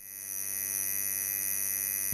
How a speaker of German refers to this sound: Genau, das ist eine Tätowiermaschine. Den Ton dürften viele von euch auch schon aus nächster Nähe kennen.